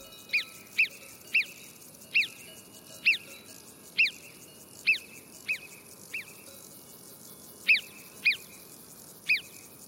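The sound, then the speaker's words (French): A lookout marmot's shrill alarm whistles repeat about a dozen times at a steady, insistent pace as a large eagle glides overhead, each call sharp and distinct against a faint, hissing outdoor background with no voices. “Seul le guetteur continue à s'époumoner.”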